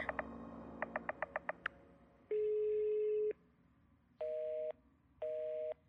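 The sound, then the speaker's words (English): A quick burst of telephone dialing beeps, then a long steady tone, followed by two evenly spaced beeps of a busy signal as the call fails, the phone lines being down across the city. Clear, with no voices. “Damn, phone lines must be down across the city.”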